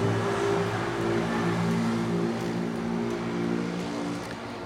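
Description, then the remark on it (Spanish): A motorcycle engine drones steadily and fairly loudly as it passes by, its rumbling harmonic hum holding for several seconds before easing slightly as it moves off. No one speaks. “hice drama porque pasó una, una moto y no quería que intercalar el audio.”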